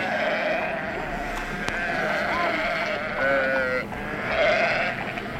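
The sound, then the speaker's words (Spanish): A flock of 60 sheep, brought by an old shepherd to a toll gate, bleating continuously, many overlapping wavering cries forming a steady dense chorus with no talking. “¿Cuántas ovejas traes contigo?”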